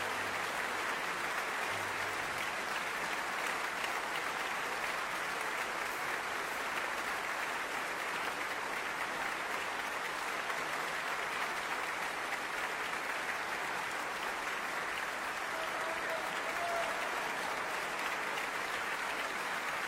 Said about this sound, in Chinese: 维也纳童声合唱团在全世界观众的面前完成了出色的表演，让我们为可爱的孩子们喝彩吧！